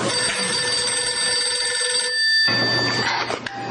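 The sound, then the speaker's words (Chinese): A home telephone rings with a bright, buzzing electronic trill, sounding in repeated bursts with a brief pause before ringing again. No one speaks over it. “嗯，待会来，家里的电话都找我的。”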